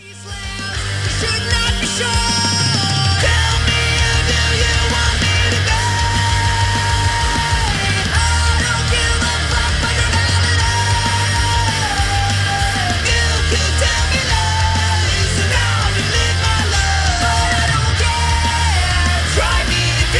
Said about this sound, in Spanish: lo voy a dejar con una banda sueca que son tres personas nada más y es una banda muy subvalorada